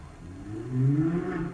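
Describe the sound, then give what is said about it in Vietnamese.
A car drives past outside, its engine rising into a loud whooshing rumble that swells toward the middle and lingers as it goes by. No one speaks. “trời ơi có một cái ô tô đi qua rất là kinh khủng luôn đấy”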